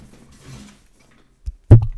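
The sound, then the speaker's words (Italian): Faint rustling, then something knocks against a microphone: a small dull bump followed by a loud, boomy thud with a rumbling, handled tail. “Sto sbattendo il cazzo sul microfono, scusa.”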